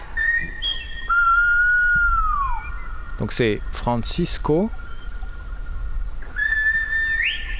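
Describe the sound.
Whistled Spanish speech, recorded in 2003 in the valleys of La Gomera, Canary Islands: a whistler calls his brother to ask him to bring red wine, with long, piercing sustained whistles that glide and bend in pitch, broken mid-phrase by quick warbling trills, with a man speaking briefly underneath.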